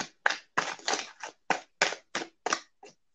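A deck of animal guide cards being shuffled: about ten crisp, papery slaps and riffles in an uneven rhythm, fairly loud, with no one talking.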